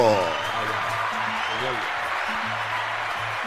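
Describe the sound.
Steady, dense applause from a crowd, a continuous hiss of clapping that holds at an even level throughout, with shouting voices mixed in underneath.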